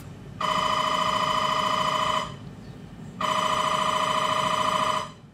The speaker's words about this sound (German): Die Töne der unterschiedlichen Programme des Scanners reichen von einem tiefen Brummen bis hin zu hellen Piepstönen.